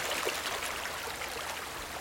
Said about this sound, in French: Main dans la main, le frère et la sœur franchissent la cascade.